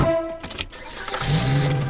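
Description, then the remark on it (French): Inspector Fix's car engine starts up as he jumps into his car, with a brief clatter and whine before the motor catches and settles into a steady, rumbling idle. No one speaks. “Et hop, Fix saute dans sa voiture.”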